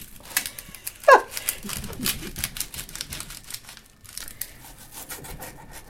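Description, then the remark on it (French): A knife finely chops an onion on a cutting board, a dense run of rapid crisp taps in an uneven fast rhythm that continues throughout. “Et là, il faut couper assez minutieusement.”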